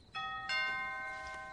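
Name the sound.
doorbell ringing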